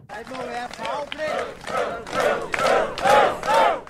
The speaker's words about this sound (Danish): Det er så fremragende et klip. Det er simpelthen utilfredshed øh, på, i sin reneste form. Øv, øv, øv.